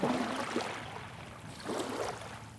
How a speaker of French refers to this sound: Dunkerque. Des vagues sur une jetée. Dans le petit port derrière Malo.